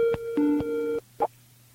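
A phone line tone sounds, steady electronic tones running for about a second with short clicks at the start and end, then a brief click-like blip before quiet. No one speaks.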